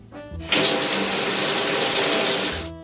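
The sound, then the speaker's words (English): A shower bursts on and runs in a steady, loud, hissing stream for a couple of seconds, then cuts off. No one speaks. “Well, first things first a shower.”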